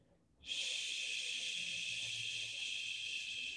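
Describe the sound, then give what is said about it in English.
A long, steady exhaled "shhh" made by a voice, breathing all the way out to imitate wind blowing through a redwood forest: a bright hiss that starts abruptly after a brief pause and holds at an even, fairly loud level for about three seconds. “Make sure to exhale all the way out and end that SH sound.”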